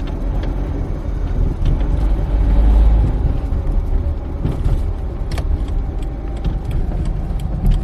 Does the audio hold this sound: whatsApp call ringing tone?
no